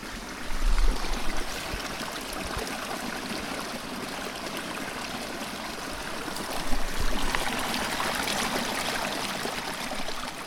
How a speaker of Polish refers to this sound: Potok. To chyba każdy z nas usłyszał, że to jest potok.